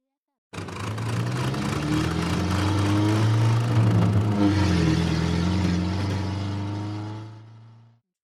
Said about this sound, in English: Zoom, zoom, zoom. Many cars go zoom.